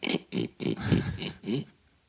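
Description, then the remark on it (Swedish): A person imitates a pig, making a run of about six rhythmic grunting snorts in quick succession, fairly loud, then trailing off into quiet. “Så alla lät som grisar.”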